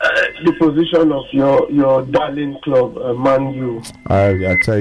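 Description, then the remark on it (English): A man speaks continuously over a phone line, his voice carrying an echoey, doubled quality as words repeat faintly behind themselves, with a steady band-limited radio-call tone. “Chief, you're echoing.”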